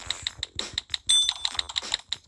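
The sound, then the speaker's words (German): Rapid, evenly spaced clicks of typing on a computer keyboard, fairly crisp, with a brief bright ringing tone partway through; no one speaks. “okay, weiter geht's. Tippen.”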